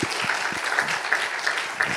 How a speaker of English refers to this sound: Come on, come on. Come on, let's come on, clap a little louder right then. I'm a clapping up in here.